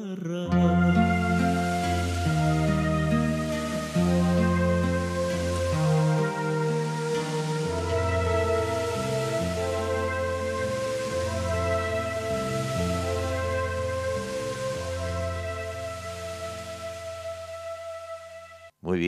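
A recorded song plays steadily and loudly, with sustained melodic notes shifting over a full, continuous accompaniment, then cuts off abruptly at the very end.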